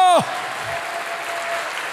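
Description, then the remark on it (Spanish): A large audience at a church service breaks into loud, sustained applause, a dense steady wash of clapping, right after a voice briefly cuts off at the start. “Dale fuerte ese aplauso.”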